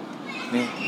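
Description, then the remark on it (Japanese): Busy background of children's voices at play at a nursery school next to a park on the outskirts of a town in Kansai, Japan, a steady chatter of shouts and calls filling the short moment, with no single voice standing out. “めちゃめちゃ今雑音が入っている場所なんですけど、これはどういうロケーションでしょうか今はですね公園ですね隣に保育園が”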